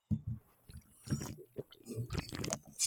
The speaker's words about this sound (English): Oh, this COVID is giving me the fucking driest lips in the world. So I'm looking forward to this sip. Hold on.